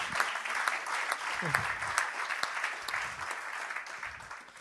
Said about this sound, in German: Vielen Dank. Herzlichen Applaus euch an dieser Stelle.